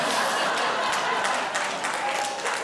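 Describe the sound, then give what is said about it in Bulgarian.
An audience claps together in a dense, steady burst of applause, many hands blending into a continuous crackling wash that stays loud for the few seconds it lasts, with no voices on top. “Ще ти дам сега да пляскаш.”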